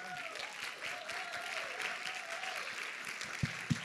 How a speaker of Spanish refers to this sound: pasa al frente, por favor, recibámoslo con un aplauso.